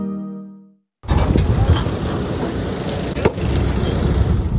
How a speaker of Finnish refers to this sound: Siinä kuorma-auto, minkä lava on täynnä tuhoutunutta irtaimistoa Pohjois-New South Walesin länsiballinnassa. Osavaltion Rural Fire Service sammutuspalvelun työskennellessä paikallisen väestön rinnalla kaupungin siivousurakassa.